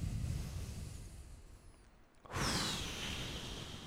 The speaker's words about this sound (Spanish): Entonces, eh, antes de empezar, una respiración es bueno.